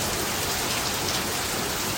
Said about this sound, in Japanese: これ雨雨の音これ大丈夫そうこれ雨の音に妨害されて音入ってないんじゃない